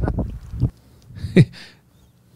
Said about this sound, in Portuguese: Sim, lá atrás, é, na, naquela outra margem da lagoa, é, a hora que acabou o vídeo praticamente, é, passaram os dois barcos lá.